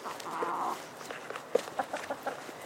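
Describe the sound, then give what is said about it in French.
Hens cluck and murmur softly in a garden, a drawn-out call followed by several short, scattered clucks, with faint rustling and steps in the background. “C'est elle que vous entendez dans son jardin avec ses poules.”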